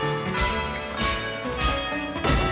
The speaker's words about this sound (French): Oh, les cloches. Il saura pas que je suis là. Un concert de cloches.